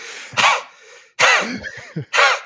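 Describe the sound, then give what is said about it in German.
A voice imitates a coughing fit from a popcorn husk stuck in the throat: three harsh, loud coughs separated by brief raspy, throat-clearing sounds, with no words spoken. “Dann fängst du an zu husten und es hört aber nicht auf.”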